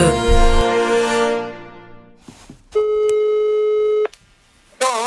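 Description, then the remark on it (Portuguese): A telephone ringback tone: a ringing chime fades out, then a steady electronic tone holds for over a second, stops, and starts again at the end. Clear, with no talking. “Esta conversa e esta chamada telefónica é porquê?”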